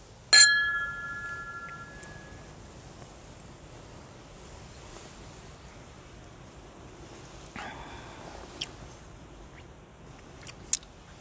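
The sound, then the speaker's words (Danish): Two glasses of snaps clink together once in a toast, bright, with a clear ringing tone that fades over about two seconds. A softer chime follows later, with a few faint taps. “Så skal vi ikke øh, skåle”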